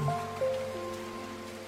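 Steady rain falling in a soft, continuous hiss, with a few low sustained tones humming underneath and no voices.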